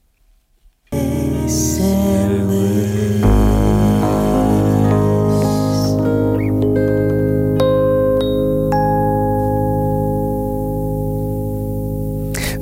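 A loud song with vocals over piano, guitar, bass and harp starts after a brief quiet moment, holding full, sustained harmonies throughout with a steady, dense texture.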